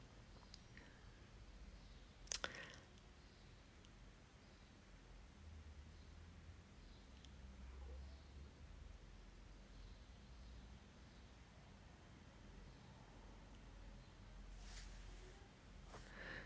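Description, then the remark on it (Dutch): A brief click, then a soft papery swish a little later as a book page is turned, faint and with no one speaking. “Ik kan nog wel even een bladzijde draaien.”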